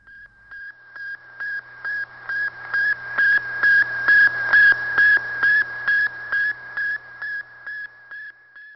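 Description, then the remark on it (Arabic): A steady train of about sixteen short, evenly spaced radio beeps at one fixed high pitch from Sputnik, the first Soviet satellite, launched 4 October 1957, swelling louder toward the middle and fading again, over a faint hiss and low hum. “كان هذا الصوت أول قمر صناعي أطلقه السوفييت والذي أسموه بالسبوتنيك والذي هزوا به العالم بإعلانهم وصولهم الهدف المنشود”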